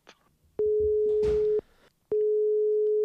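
A telephone busy tone beeps loud in steady, evenly spaced pulses of a single flat pitch, with a brief rustle of background noise between the first two beeps.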